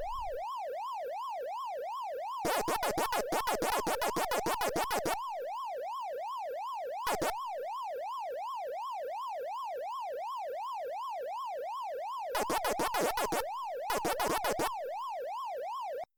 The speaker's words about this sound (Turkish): Böyle bir 30 dakika. Hala. Sadece ses tizleşti farkındaysanız. Aynı glissando loop efekti devam ediyor. Yalnızca şey değişti. Perdesi yükseldi yani. Çünkü imkanlar bu kadar.